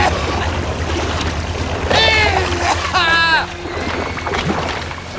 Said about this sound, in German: Ah, eine Polizeiboot!